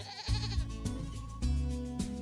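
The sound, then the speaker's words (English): A goat at a goat yoga class bleats in a run of wavering, nasal cries that follow one another with barely a pause, steady in loudness, with no talking. “Everyone feels comfortable because they're only paying attention to the goats.”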